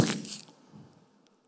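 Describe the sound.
A voice imitates something breaking: a short, harsh, noisy crash burst up front that quickly fades into a softer, scratchy tail, heard alone.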